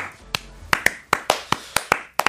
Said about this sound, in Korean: 박수.